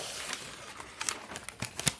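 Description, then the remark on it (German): Crisp rustling and crinkling of paper and plastic bags as items are taken out, including green cardboard paper with a dinosaur on it, thinner green papers and small bags, with irregular handling noises and a few sharper crackles, no talking. “Gerade hole ich ein paar Sachen raus und da ist einmal ein Dino drauf aus so einem grünen Papppapier und so zwei etwas dünnere Papiere, aber auch in grün.”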